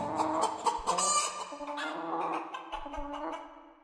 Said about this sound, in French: lance le jingle.